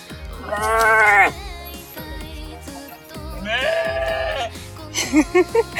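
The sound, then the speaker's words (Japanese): A goat gives two long, wavering bleats that sound strikingly like a human voice crying out, followed by a few short, choppy bleats, loud. “ねーって、人間みたいな声で。あ、ヤギ。あ、ヤギだね。”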